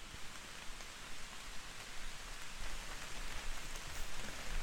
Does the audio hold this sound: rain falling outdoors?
yes